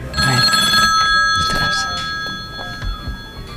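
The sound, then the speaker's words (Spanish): An old bakelite telephone bell rings with a bright, metallic, sustained jangle, fairly loud, fading slightly toward the end, with faint voices underneath. “Y, conocimos un aparato de estos que sonaba más o menos así, mira.”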